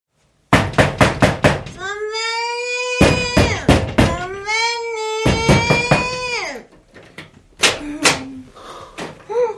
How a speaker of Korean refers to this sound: 하지만 그것보다 심각한 문제는 진땀을 흘려가며 겨우 방으로 들여보내도 맥주만 한 잔 더 하자면서 기어코 백현준의 방문을 두드리는 것이었다.